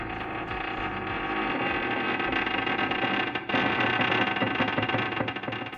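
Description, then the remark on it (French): A long, drawn-out metallic creaking groans on without pause, muffled and far off, rising along the walls of a spaceship, with a brief dip midway before swelling again. No one speaks. “Un grincement métallique lointain lui répondit.”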